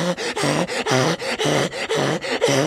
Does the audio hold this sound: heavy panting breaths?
yes